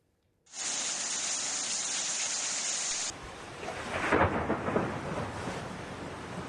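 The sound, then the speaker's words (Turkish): Dense, steady roar of heavy rain in Antalya, Turkey fills the first seconds, then gives way to a deeper rumbling wash with swelling, crackling bursts like thunder rolling through a downpour, with no one talking. “Beklenen yağmur geldi gelmesine ama bu kez de sel, taşkın ve fırtına hayatı olumsuz etkiledi.”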